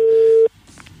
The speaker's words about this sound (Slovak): Ja viem, ale že zvonilo, nie? Že zvoniť zvoní, ale nedvíha, no. Zvoniť môže aj do, do 8, ho necháme.